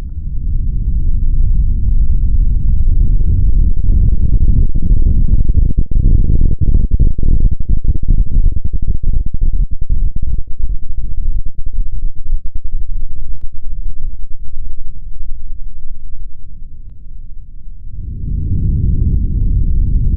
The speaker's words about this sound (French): Ce bruit vient de partout et transforme le monde. Ça, c'est le son de la vague qui arrive. Je voudrais que vous écoutiez ce son-là.